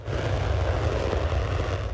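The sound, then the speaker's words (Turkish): Turkish Armed Forces military jets taking off at night for air strikes in northern Syria, heard as a loud, steady, rumbling roar with heavy low-end thunder and a broad hiss that holds constant throughout, with no voices. “Perşembe gecesi düzenlenen ilk hava saldırısının ardından savaş uçakları gece bir kez daha havalandı.”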